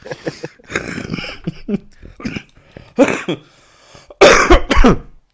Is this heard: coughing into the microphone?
yes